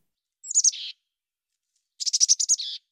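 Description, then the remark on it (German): Two bursts of high, bright tit calls combining two call variants, as tits do when jointly driving off an enemy: a short chirping phrase, a pause, then a longer rapid string of sharp notes ending in a buzzy trill, clear with no other sounds. “Wenn die Meisen gemeinsam versuchen, einen Feind zu vertreiben, singen sie eine Kombination aus diesen beiden Rufvarianten.”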